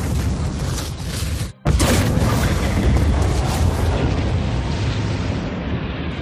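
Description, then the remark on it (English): A loud, heavy sci-fi cannon blast from the cannon on the Idris spaceship: a rumbling roar cuts out abruptly for a split second, then a massive boom erupts and rolls on in a sustained, dense rumble. “The the cannon on the Idris, in case anyone's wondering, or one of the leaked sounds.”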